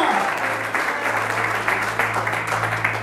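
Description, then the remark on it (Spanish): A crowd at a church sermon applauds God, clapping steadily and loudly for about three seconds, a dense wash of many hands over a low constant hum, with no clear voices standing out. “Alguien puede aplaudirle a Dios que cambia las cosas de lo vil y lo menospreciado.”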